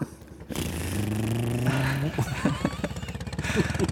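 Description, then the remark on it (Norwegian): A motorcycle engine revs loudly, its droning pitch climbing steadily before breaking into a rougher, sputtering rhythm, with what may be voices mixed in. “vi hørte lyden av motorsykkelen likevel”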